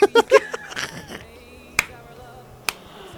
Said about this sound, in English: Did I just get applauded for that? yes, you did. I just applauded you for that.